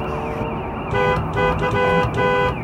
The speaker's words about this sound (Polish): Zjedź baranie na bok! Głuchy jakiś, czy co? Koguta nie słyszy.